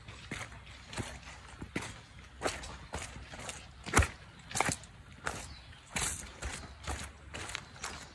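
Wet, squelching footsteps climbing squishy trail stairs, wet ground, about a dozen soft thuds in an uneven walking rhythm, each with a brief sloppy squish, the strongest one landing midway through, with no talking.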